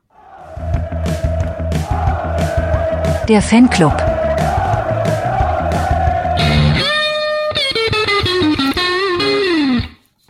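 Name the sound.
segment intro jingle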